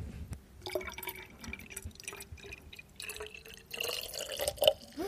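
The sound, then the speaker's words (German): Vinegar, 200 milliliters, pours into a glass bottle holding 300 milliliters of boiled and cooled water, in an uneven, gurgling stream with dripping and splashing, fairly quiet, growing a little louder toward the end. “Also, wir haben hier 300 Milliliter von dem Wasser und wir geben jetzt 200 Milliliter von unserem Essig dazu.”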